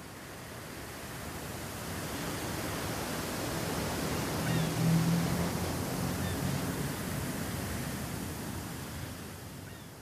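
Steady ocean surf washing in, a broad rushing hiss that swells gently toward the middle and eases off again, heard alone with no voices.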